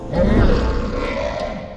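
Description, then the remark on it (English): A loud, deep monster roar sound effect for the Typhon, a giant, snake-like monster with wings and hundreds of dragon heads for arms: one sustained, harsh growling blast that holds steady for nearly two seconds before easing slightly at the end. “He's a giant, ugly, serpentine, uh, uh meaning snake like, monster with wings and hundreds of dragon heads for arms.”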